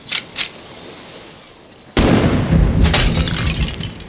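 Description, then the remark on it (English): Two faint clicks, a pause, then a sudden loud gunshot as a bullet strikes a ceramic dummy in front of a mansion, followed by a sustained crash of shattering porcelain, bright tinkling fragments scattering for a couple of seconds, the shot echoing off nearby ocean cliffs at sunset. “The high tinkle of breaking porcelain underscored by gunshot as it echoed off the ocean cliffs nearby.”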